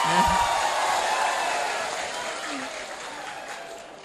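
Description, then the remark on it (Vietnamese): An audience, asked to give a round of applause of just five claps, applauds in a steady, dense wash of clapping that fades only slightly over four seconds, with a brief voice at the start, rather than a handful of separate claps. “xin quý vị cho một tràng pháo tay mà chỉ 5 tiếng thôi”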